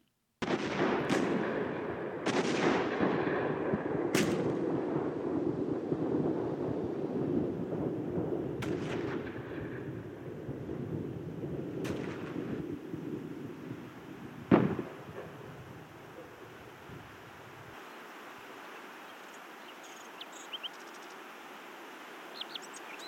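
Booming World War I artillery fire thunders in a dense, rumbling barrage with sharp individual blasts, then thins to scattered shots and falls nearly silent as the firing stops at the armistice on 11 November, leaving faint hiss.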